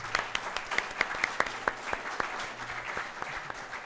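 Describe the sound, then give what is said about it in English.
A live audience at the Aston Martin Bristol dealership breaks into applause, a dense patter of many hands with sharp individual claps standing out, moderately loud and steady throughout, with no talking over it. “Ladies and gentlemen, give yourself a round of applause.”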